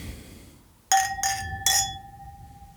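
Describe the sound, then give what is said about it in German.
Glasses clink together three times in quick succession in a toast, each touch leaving a clear, bright ringing tone that lingers and fades, with no talking. “Okay. Chin, chin. Chin, chin.”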